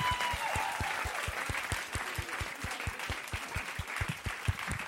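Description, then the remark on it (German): Steady applause from an audience, many hands clapping at once in a dense, continuous patter that holds its level for several seconds, with a faint whistle early on. “Einen großen Applaus für unser Knutschgeräusch.”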